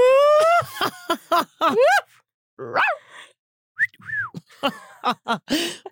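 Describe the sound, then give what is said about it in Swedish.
A person whistles in a series of loud, rapid bursts, with pitches swooping up and down and several sharp chirps. Short gaps break up the run, and no one talks over it. “oh, vilken bra vissling!”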